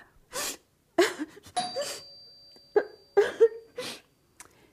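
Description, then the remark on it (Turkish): A mother sobs in uneven, gasping bursts, with catching breaths and shaky whimpers between short pauses, fairly loud with no clear words. “Anne ne olur ağlama.”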